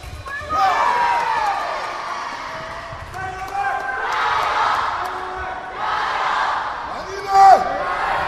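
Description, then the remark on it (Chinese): Fencers' shouts after scoring ring out over a continuous wash of audience cheering during the men's foil team final, ages 10–11, at the Jiangsu Provincial Games in Taizhou, China, with several loud, tonal yells and a sharp burst near the end, all steady and energetic. “脚步上的前后试探，剑与剑的攻防碰撞，得分后的大喊打气，观众席的阵阵加油。”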